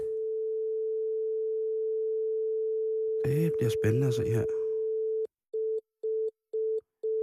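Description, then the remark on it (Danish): A steady telephone dial tone hums for several seconds while a man speaks briefly over it, as a call is placed to House of Amber, then switches to a busy signal of short, evenly spaced beeps. “Og skal vi se, om vi har mere, øh, mere held med telefonerne i dag, end vi havde i går?”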